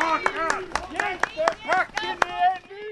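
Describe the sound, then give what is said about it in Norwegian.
Audience applause mixed with booing at a rally as the mayor of Karmøy municipality, gives a speech: sharp, irregular claps ring out over a crowd's loud, wavering voiced jeers that rise and fall throughout. “Men det var flere som ga applaus enn de som pei.”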